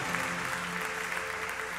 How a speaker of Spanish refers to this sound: Dale un aplauso y ponte sobre tus pies, iglesia.